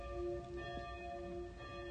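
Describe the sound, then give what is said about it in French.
Bells ring steadily within a piece of music, their sustained, shimmering tones layered over a low instrumental backdrop at a moderate, even volume with no voices. “il y a quelque chose de très fort dans cette chanson je suis vraiment perturbée par l'horloge l'horloge enfin les cloches”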